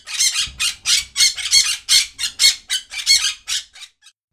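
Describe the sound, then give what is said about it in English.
A parrot squawks loudly, letting out a rapid series of about a dozen harsh, raspy calls in an uneven rhythm, with no one talking. “Little Bit and I are friends with Peel the parrot.”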